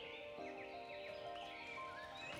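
Horse hooves of an approaching horse-drawn coach clop steadily, heard from a distance, mixed with a horse's high, wavering whinny over a continuous backdrop, with no voices.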